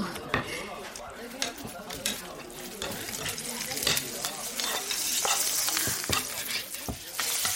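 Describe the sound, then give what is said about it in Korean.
Rice being stir-fried in a pan for a customer at a buldak (spicy chicken) restaurant: a steady hiss of sizzling under irregular scraping and clacks of a utensil against metal, with sharp knocks every half second or so and no talking. “밥 볶아드릴까요?”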